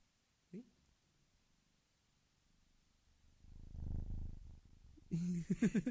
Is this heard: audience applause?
no